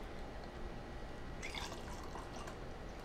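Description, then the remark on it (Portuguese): A shot of Bacardi rum is poured for a colada cocktail, a short trickling stream of liquid with light splashing that grows brighter partway through and lasts a couple of seconds over a steady low background hum. “Geralmente a gente põe uma dose e um choro também aqui.”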